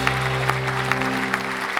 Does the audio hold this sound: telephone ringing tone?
no